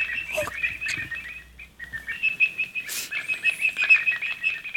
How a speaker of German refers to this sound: den Bad-Detektor oder zu Deutsch Fledermaus-Detektor